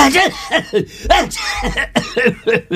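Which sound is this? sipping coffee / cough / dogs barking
cough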